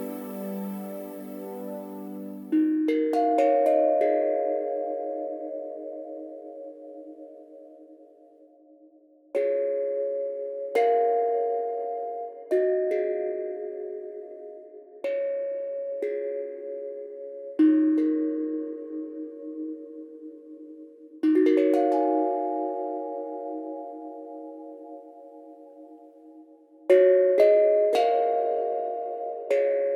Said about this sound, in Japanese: まずはスチールタングドラムです個人的にすごく好みの音なので皆様もぜひ30秒手を止めて音に身を委ねてみてください参りますよどうぞ